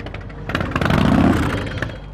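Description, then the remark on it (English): Several motorcycle engines at the Sturgis Motorcycle Rally rumble and rev together, a dense, steady mechanical roar with a swell in the middle and faint clatter, no voices. “Last summer, hundreds of thousands of bikers rumbled into the Sturgis Motorcycle Rally.”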